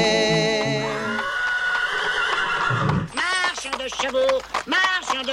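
A horse neighs loudly: one long, wavering whinny that slides downward, followed by a quick run of shorter, rising-and-falling neighs.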